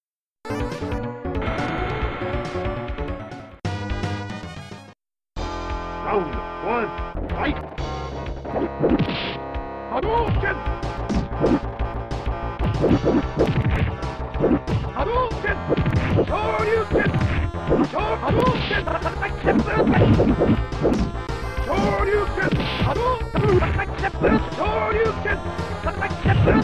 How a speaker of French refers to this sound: ça tombe bien que tu en parles, puisque voilà, un petit extrait d'un d'un combat euh, Ryuken, euh, t- tous les coups, tu les connais en fait.